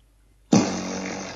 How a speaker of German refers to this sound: Soll ich furzen? Oh ja!